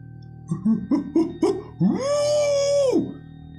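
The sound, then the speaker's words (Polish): A dog gives four short rising yelps, then breaks into a single long, steady howl lasting about a second before trailing off, with no other sounds around it, somewhere behind apartment blocks. “Wyje. Znany wam skądinąd prawie wszystkim. Głos.”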